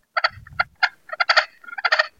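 Soft turkey yelps and clucks from a pot-style friction call, muffled and subdued by a hand and glove held over it, coming in quick bursts of several notes with no talking.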